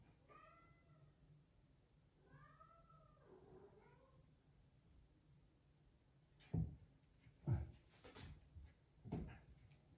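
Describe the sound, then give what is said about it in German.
A tomcat lets out two drawn-out, complaining meows, each wavering and whiny, followed by a few dull knocks and bumps like a cupboard or drawer being handled. “Ja, da meckert der Kater. Höre diesen Kater, meckern, ja, meckernde Kater, ja, der meckernde Kater.”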